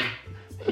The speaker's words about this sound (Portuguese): Caralho, o gato. Até o gato reclamando. Isso foi um espirro, porra, Isso foi o gato. Caralho, do nada ele aqui.